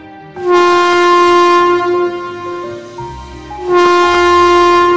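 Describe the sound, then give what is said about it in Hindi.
A train horn sounds two long, loud, steady blasts with a brief pause between them, its rich, reedy tone held over a low rumble, as the train departs from a station. “जब गाड़ी खुलने को हुई और मैं उतरने लगा”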